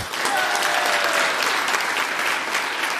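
A short burst of steady applause, many hands clapping at once in a dense, even patter that holds at a fairly loud level for a few seconds with no talking over it.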